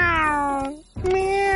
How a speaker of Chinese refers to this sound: 喵！海盗猫也凑了过来，它蹭蹭我的脚丫，似乎要帮我们一起洗衣服。